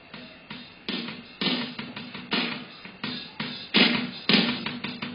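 A grunge rock song plays loudly, with dense, distorted guitar chords striking in a steady, driving rhythm and a thick, heavy low end throughout.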